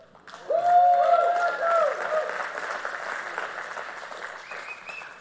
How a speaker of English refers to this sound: Let's give the praise team a hand clap.